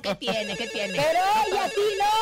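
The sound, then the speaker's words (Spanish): A telephone ringtone for an incoming call plays a bright, steady electronic melody of shifting high tones for a couple of seconds, with people talking over it at the beginning. “tenemos llamada.”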